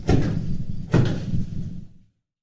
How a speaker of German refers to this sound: Ja, ich höre nur so Bom, Bom. Nee, das war eine Katze, die ist gerade oben vom Kleiderschrank runtergesprungen.